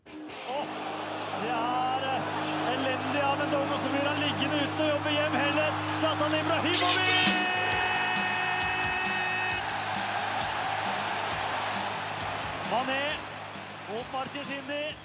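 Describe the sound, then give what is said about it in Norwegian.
Football stadium crowds at Manchester United and Liverpool home matches in England roar steadily for the whole stretch, a dense wash of many voices with chanting tones rising out of it, a low hum underneath early on, and occasional sharp thuds. “Her hørte vi Manchester United og Liverpool i ferd med å spille sine hjemmekamper.”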